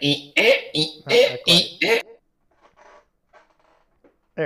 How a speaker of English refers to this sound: Um, and did I make any creaky chair noises at all this whole uh, episode